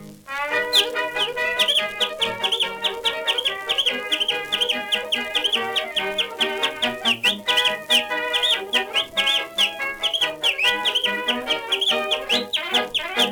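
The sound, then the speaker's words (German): Shrill whistling done with one or two fingers wedged into the mouth, on a record, a quick run of chirping, clucking bird-like calls played over a busy musical backing with steady percussive beats throughout, loud and continuous. “All those sounds on the record were his actual whistling. He did it with one or two fingers wedged into his mouth.”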